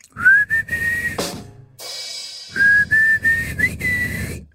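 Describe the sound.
A band's singer whistles a melody in sustained, clear tones over the band's backing music, pausing briefly midway before the whistled tune resumes with slight pitch bends.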